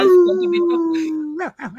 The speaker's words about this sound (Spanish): Ahora se escuchan los coyotes de lejos bien duro.